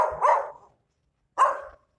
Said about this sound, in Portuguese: Aí ó, tá uma porra do cachorro aqui, gente. Não é saca. Esse cachorro aqui faz três anos que eu moro aqui. Esse filho da puta fica na rua.